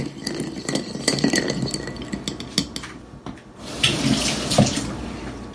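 A spoon stirs bourbon and simple syrup in a glass while making an old fashioned, with quick irregular clinks and scrapes for a few seconds, followed by a softer, steady watery swishing. No one speaks.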